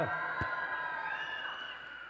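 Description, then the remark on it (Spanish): A children's class lets out a loud, sustained shout of joy, many high voices overlapping in one long excited cry that holds steady for a couple of seconds. “Niños, den un grito de júbilo.”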